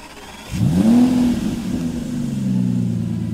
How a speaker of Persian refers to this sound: خواست بلند شود که از بیرون صدای قررش موتور ماشین آمد و نور زرد رنگی هم افتاد داخل سوله